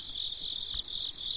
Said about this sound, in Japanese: えー、ここは曲を変えましてですね、BGM は虫の声です。えー、秋らしいテイストを入れてみました。お家で聞いてる方、家の中にコオロギが入ったんじゃないかとドキッとしてるかもしれませんが、安心してください。コオロギ、私の後ろで泣いています。